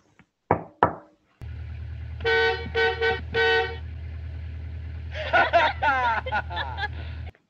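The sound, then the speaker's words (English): After two sharp knocks, a car horn is beeped four times in a quick patterned rhythm while the car is being driven, over a steady engine hum, followed by a run of warbling, higher-pitched tones. “Um, in when they're driving the car and Beth or Andy goes beep beep on the horn and Judy does something.”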